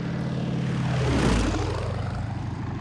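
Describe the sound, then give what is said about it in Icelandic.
A new British-built Avro 504K biplane with a 110-horsepower Le Rhône engine takes off from Iceland around five o'clock on 3 September 1919, the first flight from Icelandic soil. Its engine drones steadily, pitch sweeping and the roar swelling to a peak midway before easing off slightly, with a continuous buzzing hum and no voices. “september Klukkan var um það byrj 5 þegar fyrsta íslenska flugvílinn lifti sér til flugs frá íslenskir grund í fyrsta sinn.”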